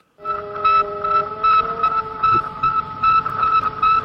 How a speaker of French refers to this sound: Alors ce sont les signaux émis par le premier satellite artificiel de notre planète, Sputnik 1, et en 1957.